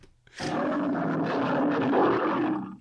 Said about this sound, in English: That's a lion.